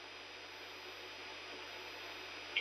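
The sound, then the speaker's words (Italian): The voice drops out completely, leaving only a steady, low-level hiss of line noise for a few seconds, with a tiny click just before the end. “Eh, Stai parlando perché è andata via la sì, voce.”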